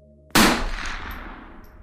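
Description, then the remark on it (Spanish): A single loud rifle shot cracks sharply near the start, then its echo rolls and decays slowly across the rest of the moment. A low hum sits underneath before the blast. “y al final esta terminó asesinándolo en 1964 de un disparo de rifle en el pecho.”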